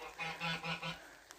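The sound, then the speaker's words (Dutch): Four quick, nasal goose honks in a steady run, clear, then near silence with a faint click at the end. No voices. “want ik zie een gans dus waarschijnlijk zit het ook echt bij het innerlijke kind.”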